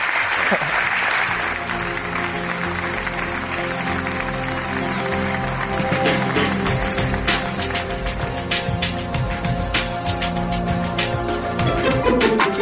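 An audience applauds guests on a Radio Nacional de España programme continuously for about twelve seconds, a loud, dense wash of many hands clapping at a steady level, with a tonal musical bed faintly running underneath.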